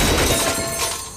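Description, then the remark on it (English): A loud, sustained crash of a brand new metal outdoor grill, hurled off a 20-story building, smashing on impact, a dense clatter of rattling, breaking debris that stays harsh and bright before easing slightly at the end. No voices. “This is the sound of a brand new outdoor grill being hurled off a 20 story building.”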